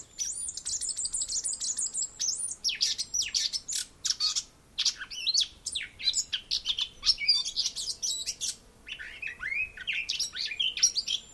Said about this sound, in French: C'était vraiment une sonothèque de collection de, chants d'oiseaux.